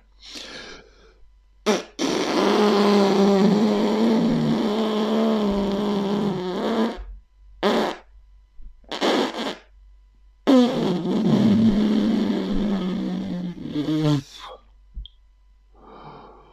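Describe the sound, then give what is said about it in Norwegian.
A person blows hard against their thumb to imitate a beaver call, making loud, raspy, pitched buzzing blasts: two long sustained ones with several short sputtering bursts in between, and no talking. “Det var den perfekte falske beverlyden.”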